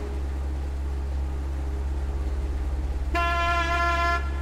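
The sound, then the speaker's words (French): The engine of the Saint-Nicolas, a guided boat at Ponté au Cellier, drones steadily at cruising speed, a loud, continuous low rumble throughout. Near the end a bright, sustained horn toot sounds over it for about a second. “vous risquez d'entendre un peu pas mal le moteur, mais bon, voilà, ma vitesse de croisière, c'est celle-là.”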